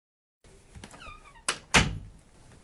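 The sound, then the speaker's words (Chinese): A bedroom door swings shut: a brief creak and rattle of the handle, then two solid thuds in quick succession, the second louder as it latches closed. No voices. “听见沈西卧室的关门声”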